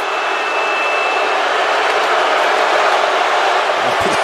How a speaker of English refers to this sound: Listen to the roar of this crowd. No respect for Detlef Schrempf.